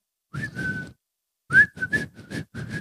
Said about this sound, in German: ich kann nicht pfeifen, während ich lache.